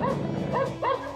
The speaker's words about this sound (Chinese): 他们前行到叶禅屋子稍远处，还没布置好，就惊动了庄园内守夜的狼狗。一时间，狗吠声此起彼伏。